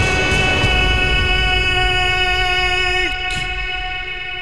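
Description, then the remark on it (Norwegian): A train rumbles through the Follo tunnel on the new Follobanen line in Norway with a steady, echoing roar and a layer of bright whining tones that dip slightly in pitch near the end as the sound eases off. “Det var eh, ikke Follotunnelen? Jo, det var forløp, den nye Follobanen.”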